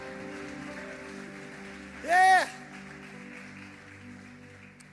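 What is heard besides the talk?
audience applause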